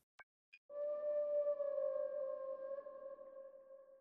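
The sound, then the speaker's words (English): Two quick clicks, then a long, steady whale-like tonal drone, an ambient whale sound sampled from a music-making application played with a PlayStation controller, with a smooth, sustained hum that holds for several seconds and slowly thins out, with no talking. “Although I do remember spending hours um, playing this, but this is that sound, the ambient whale that I had uh, um, sampled from uh, from that application.”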